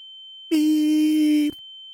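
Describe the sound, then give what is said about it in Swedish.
A thin, steady high-pitched ringing tone, like the tinnitus beep heard after playing music at maximum volume on an MP3 player, runs unbroken through the whole stretch, while a louder, lower, buzzy beep cuts in over it for about one second in the middle. “När jag kom hem sen så hörde jag det där ökända pipet man hör då.”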